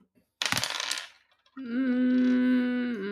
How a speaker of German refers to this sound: Ich würfel nochmal auf meine Emotion.